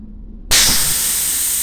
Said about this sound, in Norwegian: Sug ut all luften, og så plutselig forsvinner lyd.